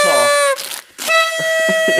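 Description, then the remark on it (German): A toy horn is blown twice: a loud, wavering honk that bends in pitch, a brief pause, then a longer, steady bright blare, with faint rustling or breathy noises underneath. “Meine Tröten, ich habe zwei Tröten, wir haben vier gehabt, ne?”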